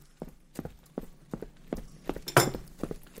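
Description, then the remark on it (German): Footsteps approaching from around a corner below, in a steady, brisk rhythm, roughly three per second, clear, with one heavier, louder step partway through. No one speaks. “Also unten um die Ecke hörst du, dass Schritte näher kommen.”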